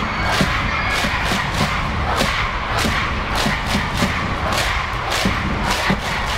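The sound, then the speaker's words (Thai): Supporters of two rival teams, red and purple, chant and cheer their teams loudly and continuously at a match, with rhythmic shouted chants and sharp thumping beats recurring roughly every half second. “ทางสนามกองเชียร์ทั้งสองสี ต่างก็ไม่มีใครยอมใคร ตะโกนเชียร์ทีมของตนอย่างสุดเสียง”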